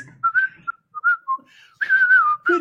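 A person whistles a short melodic movie theme tune, several clear notes gliding up and down, ending with a longer sustained phrase. No one speaks.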